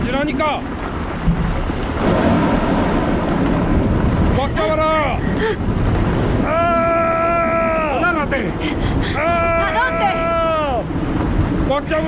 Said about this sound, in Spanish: De pronto se hizo de noche. El barco se bamboleaba como si fuese de papel. De vez en cuando un relámpago lo iluminaba todo y nos descubríamos rodeados de olas gigantescas.